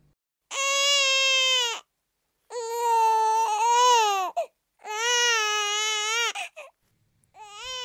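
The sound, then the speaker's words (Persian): A newborn baby wails loudly in three long, strained cries separated by brief gasping pauses, with a fourth cry just starting as it ends. “کلا اینجوری بگم که برای شناخت متقابل هم که شده گریه های اولت به هر دلیلی باعث خوشحالیه ولی خب اینا برای ماست برای خودت بستگی داره مثل اولین گریت وقتی دارم نیشگونت میگیرم”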